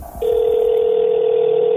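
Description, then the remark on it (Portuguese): A telephone line goes dead after a man on the other end hangs up on a police officer: a faint low rumble, then a loud, steady dial tone that holds unbroken to the end. No one speaks. “O policial tentou manter contato, mas ele pôde ouvir o homem do outro lado desligando o telefone.”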